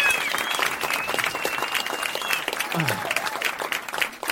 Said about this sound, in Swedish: Ja, kom igen. Det är vi med. Liten applåd bara eftersom... Fan, ja, fan vad schysst.